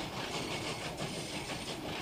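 A train rumbling steadily along the rails, a dense continuous roar with a faint rhythmic clatter and a hissing high edge, constant in loudness throughout, with no voices.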